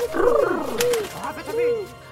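A pigeon coos in a few throaty, rolling phrases, each rising and falling, filling about two seconds against a quiet background.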